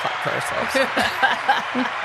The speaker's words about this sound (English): Give give the big old round of applause.